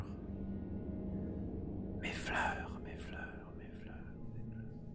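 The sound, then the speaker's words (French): A breathy, eerie whisper drifts in after a couple of seconds of low ambient hum, a few hushed, hissing syllables that fade out while the faint background rumble continues. “Tu tournes les talons, tu quittes, puis au moment où tu t'en vas vers la salle de bal, t'entends juste un murmure.”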